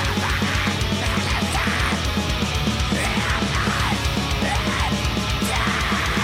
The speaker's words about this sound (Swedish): Men det låter Väldigt trummaskinigt.